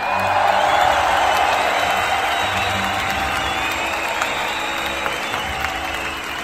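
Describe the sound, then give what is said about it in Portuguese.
Sustained applause from a crowd, dense and steady clapping throughout with a few faint cheers mixed in, fairly loud, tapering slightly toward the end. “botam eles para correr e palmas para os nossos heróis.”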